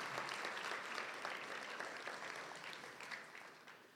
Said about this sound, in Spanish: Démosle un aplauso a todos los que están bendecidos el día de hoy. Así es, hermanos.